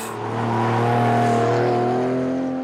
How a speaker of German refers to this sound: der einmal auf die Frage antwortete, welche Sinfonie für ihn die schönste sei, die eines Ferrari V12.